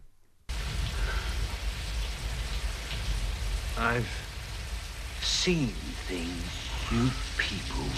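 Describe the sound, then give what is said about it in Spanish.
Steady, dense rain hisses continuously after a brief quiet start, with a few short voice-like fragments rising faintly above the downpour: the rain in the film scene where the Nexus 6 sits Deckard, played by Harrison Ford, down in front of him. “Y sin embargo, salva a Harrison Ford, salva a Deckard, que iba, quería matarlo, lo sienta frente a él y se sienta eh, bajo la lluvia para decirle,”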